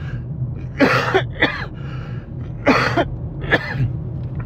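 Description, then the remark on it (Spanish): Several harsh coughs come in two clusters, each a quick pair of bursts, with short pauses between and no talking. “Quería parar para poder toser, pero no, no me hace caso.”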